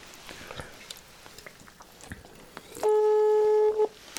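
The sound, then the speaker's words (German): A single loud, steady electronic ringing tone from a phone call, lasting about a second, with a buzzy mid-pitched hum. Faint clicks and rustling come before it. “Hoffen wir, dass er rangeht.”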